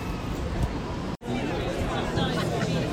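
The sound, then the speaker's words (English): A dense crowd of around 200 protesting teachers at a demonstration in the centre of Coventry murmurs and chatters continuously, many overlapping voices forming a steady hubbub, broken by a sudden brief silence just past the midpoint before the babble resumes. “So we've joined a crowd of, I think, must be around about 200 teachers in the centre of Coventry.”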